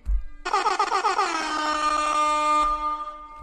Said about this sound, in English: Let her get an air horn real quick. Holla at your boy. Oh, let me get an air horn.